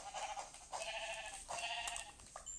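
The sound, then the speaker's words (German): A video game sheep bleats three times in quick succession, each wavering call clear, with short pauses between and no talking. “Da ist noch ein Schaf.”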